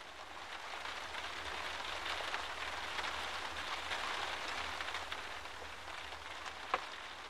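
Steady rain patters on a wet street in a continuous, even hiss at moderate volume, with one brief sharper drip or tap near the end. Nobody speaks.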